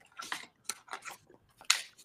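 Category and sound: household object, shuffling playing cards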